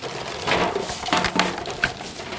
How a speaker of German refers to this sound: Äh, wundert euch nicht, ich stehe in meiner Küche, hier läuft im Hintergrund die Spülmaschine.